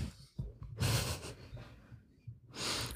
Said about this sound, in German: Ich muss kurz was trinken.